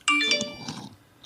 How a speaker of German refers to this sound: Meine Damen und Herren, das war mein Handy, pardon. Man hat's gehört.